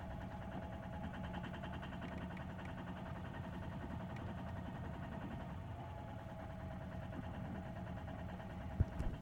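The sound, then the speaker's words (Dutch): A boat engine runs steadily at high revs against its set anchor, which holds fast; a continuous low rumble and drone holding the same pitch throughout, fairly loud, with a brief knock near the end. “Zal ik de motor uitdoen?”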